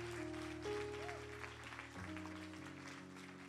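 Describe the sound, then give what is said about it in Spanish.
A church audience applauds for Jesus during a morning service, with steady, sustained clapping that keeps going for the whole stretch, over held keyboard or organ chords that shift partway through. “Dele ese aplauso fuerte si se lo va a dar, déselo a Jesús.”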